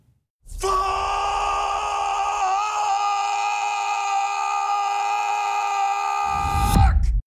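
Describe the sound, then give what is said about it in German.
A man, an actor, lets out a single long, loud scream at the start of a TV series about the history of swear words, held steadily for about six seconds before breaking off abruptly at the end. No one speaks. “So schreit der Schauspieler Nicolas Cage am Anfang einer Netflix-Serie über die Geschichte der Schimpfwörter”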